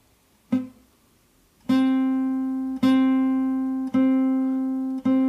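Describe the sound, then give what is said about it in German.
A single muted, buzzy string pluck dies away quickly, then the same note rings out clear and sustained, plucked again three more times at a steady pace, fairly loud, as the left-hand finger pressure on the string is increased in small steps until the note sounds clean again. “Jetzt drücke ich wieder so weit in kleinen Schritten, bis man den Ton wieder hört.”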